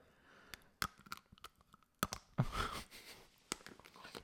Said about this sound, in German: ich wollte so richtig geil abbeißen, damit man es hört.